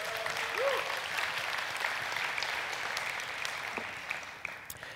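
An audience applauds to cheer on a pastor, with steady, dense clapping that holds at an even level for several seconds, with no one speaking over it.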